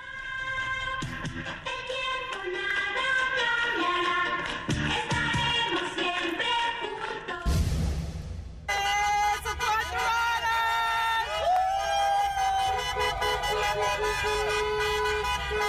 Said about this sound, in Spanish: Bueno, esto que acabamos de escuchar es el sonido de una de las muchas manifestaciones que hay en estos momentos en Los Ángeles, California, con motivo de la huelga de guionistas de Hollywood.